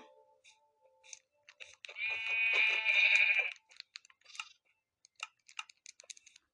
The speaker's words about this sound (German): Hallo Schafe.